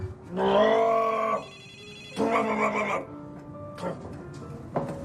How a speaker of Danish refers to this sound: Det er telefonen, der ringer to sekunder.